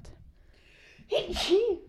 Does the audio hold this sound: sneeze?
yes